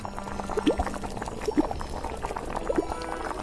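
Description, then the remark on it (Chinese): Oil boils and bubbles steadily in a wok, a continuous low sizzling hiss broken by scattered soft pops and gurgles, with no voices over it. “镇元大仙又命弟子抬出了一个大油锅，里面都是沸腾的油哦，烧得噗噗噗的冒泡。”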